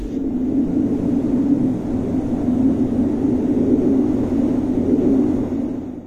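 A steady, loud droning rumble from a wind turbine holds a constant low hum throughout with a broad whooshing noise layered on top. No one speaks.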